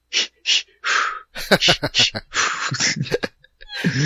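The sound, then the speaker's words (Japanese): A voice imitates Lamaze breathing as the download sound of a mock iPhone app, loud: two quick, sharp breaths followed by a longer exhale, then voiced breathy sounds and laughter-like talk follow. “えー、ダウンロード中の音声がラマーズ法。”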